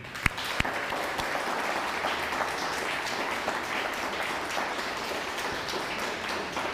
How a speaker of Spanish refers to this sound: Un fuerte aplauso, Argentina.